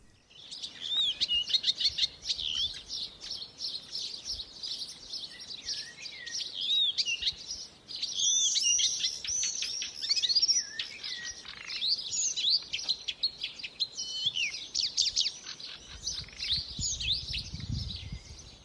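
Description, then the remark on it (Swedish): A reed warbler, either a marsh warbler or a Blyth's reed warbler, recorded at Östby, sings a long, continuous, chattering warble of varied chirps and trills, with faint low rumble from the surroundings and no talking. “att man står och tvekar mellan kärsångare och bussångare”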